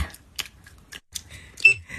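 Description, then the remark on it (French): Wet gum chewing by a woman, with irregular smacking and clicking mouth sounds, loud, spaced unevenly over a couple of seconds with no talking. “le son vraiment très, très fatigant que vous entendez, c'est … qui mâche sa gomme”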